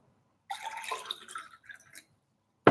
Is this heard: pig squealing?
no